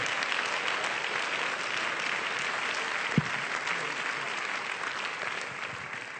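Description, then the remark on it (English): An audience in Pensacola, Florida claps their hands to show they believe God is a healer, in steady, dense applause that holds at an even level throughout, with one brief louder thump partway through and no voices standing out. “If you believe God's a healer, clap those hands so that all of heaven can hear it.”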